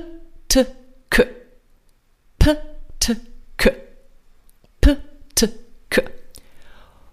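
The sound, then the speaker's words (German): A voice makes a series of short, sharp 'p' plosive bursts as a pelvic floor exercise, nine in all, in small groups separated by brief pauses, fairly loud with no other talking. “Und für die von euch, die schon sehr, sehr weit sind in ihrer Wahrnehmung, kannst du sogar herausfinden, ob du das P, T, K an unterschiedlichen Stellen deines Beckenbodens vielleicht sogar wahrnehmen kann, kannst.”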